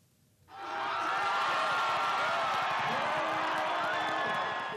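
A large crowd in the capital Brasília, Brazil, erupts into loud, sustained cheering after the lower house voted for impeachment proceedings against President Dilma Rousseff; after a brief quiet start, a dense roar of shouting and whooping voices holds steady to the end.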